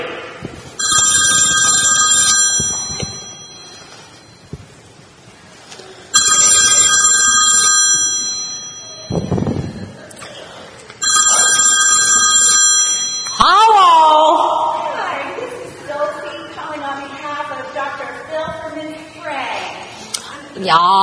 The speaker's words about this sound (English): the phone began to ring.